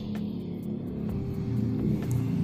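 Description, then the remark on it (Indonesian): A motorcycle engine drones steadily as it rolls past, a low rumbling hum that stays loud throughout with no one talking. “Sebentar, ada motor lewat.”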